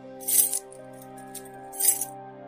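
Keys jingle in two short, bright metallic bursts as Velie quietly takes them out, the second burst a little quieter than the first, over a steady low musical drone.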